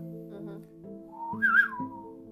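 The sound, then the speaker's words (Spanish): A person whistles a single rising-and-falling note, emulating a whistle made with the hands. The whistle is brief, swelling in the middle over a steady low background hum. “De que dicen que el amigo se comunica con el silbido que hacen con las manos. Yo no lo puedo hacer, yo silbando lo emulo, pero no lo puedo hacer.”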